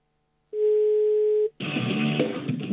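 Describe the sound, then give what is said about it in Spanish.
A single steady telephone line tone hums for about a second, clear, then stops abruptly as a louder, dense burst of mixed noise takes over; the call goes unanswered. “no nos contesta el teléfono, si estás ahí,”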